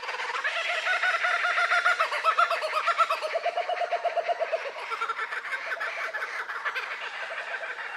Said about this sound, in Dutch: Uh, het is een koekapura. Ah, ja, ja, ja, koekapura, ja, ja, wordt die wordt ook wel de lachvogel genoemd, omdat hij zo goed de, de menselijke lach eh, kan nabootsen.